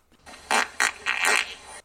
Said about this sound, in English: he chose his moment and intentionally farted three times in the direction of the officer